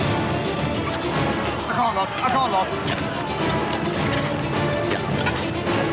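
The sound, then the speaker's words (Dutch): Balloons being twisted into balloon figures in a world-record attempt at making balloon figures in one minute, with rubbery squeaks and stretching creaks crowding closely together in a busy, continuous flurry, while a voice briefly speaks over it. “Dat was dus het wereldrecord uh, ballonfiguren maken in één minuut.”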